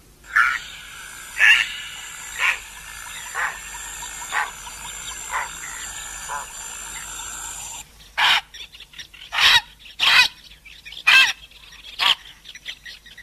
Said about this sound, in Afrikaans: Ek vermoed dit is ons gewone ou blou ruier wat so klink.